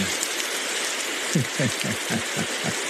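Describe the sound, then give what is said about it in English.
A rain sound effect played from a sound toy: a steady, dense hiss of rain pours down throughout at moderate loudness, joined halfway through by a run of soft, evenly spaced low thuds like heavy drops hitting a surface. “Oh, you want some rain? How about some rain?”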